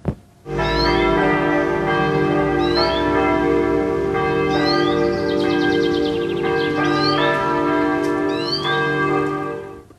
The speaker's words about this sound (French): Vous avez entendu, c'est un signal agréable. J'ai enregistré euh, euh, près d'une église, il y avait des cloches, et puis il y avait des oiseaux, on les entendait bien.